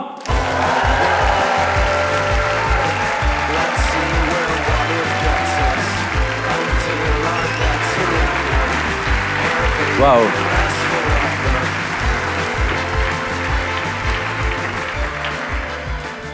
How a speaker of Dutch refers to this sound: Graag jullie applaus voor een absolute popstar, all-star, legend, Leonard Korovits en Otto Jan Ham.